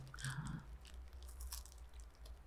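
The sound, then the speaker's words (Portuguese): A crisp bite into a crunchy Ferrero chocolate cone, followed by a few softer crackly crunches of chewing over a low background hum, with no talking. “Ixi, mas se morder aqui, ele vai... Vou arrebentar, hein?”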